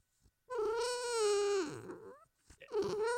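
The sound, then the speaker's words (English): A female dog makes drawn-out, warbling 'talking' vocalizations, a long wavering howl-like moan followed by a shorter second one, fairly loud with no one speaking. “Come on, puppy. Say, talk to these people. They love you.”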